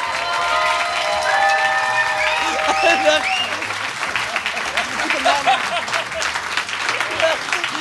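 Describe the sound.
A crowd applauds steadily for several seconds, a dense wash of clapping, with a few voices whooping and cheering over it early on and someone laughing.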